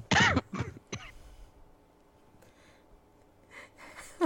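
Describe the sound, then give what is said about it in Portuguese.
A few sharp bursts of coughing and throat clearing at the start, followed by quieter breathy noises and faint rustling. “Não, é que a risada atrás a tosse.”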